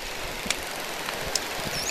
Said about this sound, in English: Yeah, it's an underwater recording, middle of the night. Everything you hear in there is completely natural sound. There's a dolphin whistling at high frequencies, and then there are fish sounds